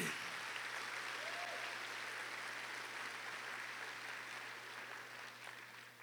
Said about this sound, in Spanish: ¿Cuántos? Denle un aplauso al Señor bien fuerte en esta tarde.